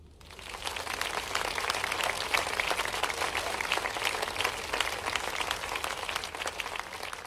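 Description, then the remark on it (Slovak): Sustained applause and a standing ovation from a large group of male and female lawmakers after Zelensky finishes his speech, a dense, steady wash of many hands clapping that swells quickly and holds at a loud, even level throughout, with no talking over it. “Keď Zelenský skončil svoj prejav, samozrejme prišiel veľký potlesk od našich eh, poslancov a poslankyň, standing ovation.”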